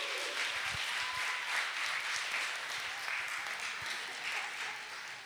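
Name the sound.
audience applause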